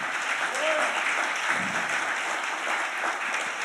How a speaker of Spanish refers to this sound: Dale ese aplauso al Señor.